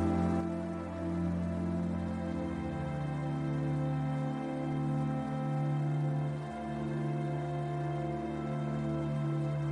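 Steady, continuous rush of cascading water, like a waterfall, holding an even level throughout with a soft, sustained low hum beneath it and no voices.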